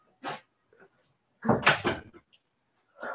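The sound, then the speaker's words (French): A door is handled: a short clunk, then a louder cluster of creaks and bumps as it opens and shuts to let a cat in, followed by another brief knock. “Oh bah tu veux rentrer ou tu veux pas rentrer Faudrait savoir.”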